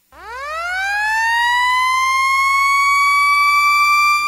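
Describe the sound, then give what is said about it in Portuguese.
A loud alarm siren, presented as a Diponto sound alert system from Brazil, winds up from a low pitch into a steady, sustained high wail, holding its tone clear with no voices present. “Sirenes rotativas, digitais e audiovisuais, campainhas de prato e sinalizadores visuais de advertência.”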